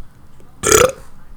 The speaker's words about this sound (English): I just burped.